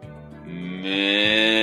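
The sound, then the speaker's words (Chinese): A voice imitates an old sheep's bleat: one long, drawn-out, wavering 'baa' at a low pitch that grows louder and brighter partway through, with no other talk. “哦，一只老绵羊慢慢的走了过来，甘伯伯。”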